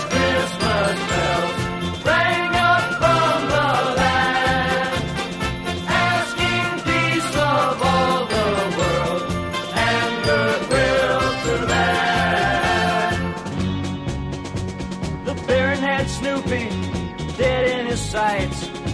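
Christmas bells jingle and ring brightly through a loud, full musical arrangement, their high tinkling carrying steadily over the instrumental backing for the whole stretch, with no voices.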